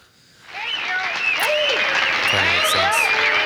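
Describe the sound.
After a brief quiet moment, a crowd breaks into loud, sustained applause that keeps building, with scattered voices and cheers rising over the dense clapping.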